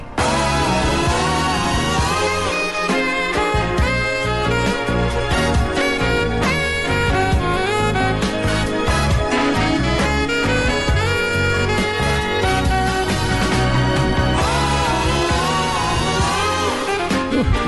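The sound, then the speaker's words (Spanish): A saxophone plays a smooth, lyrical solo over a full pop band with steady drums and bass, loud and continuous for the whole stretch, with no voices. “Y tiene un solo de saxofón muy bonito que suena así.”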